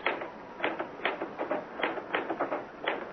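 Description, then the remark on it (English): Typewriter keys struck slowly and unevenly, one sharp clack at a time with short pauses between, clear against a quiet background. “Ah, why did I never learn to work a typewriter?”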